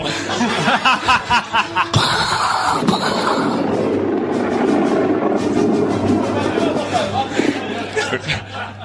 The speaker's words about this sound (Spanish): Los truenos, coño.